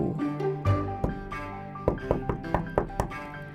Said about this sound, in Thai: อยู่ ๆ ก็มีเสียงเคาะดังขึ้นที่ประตู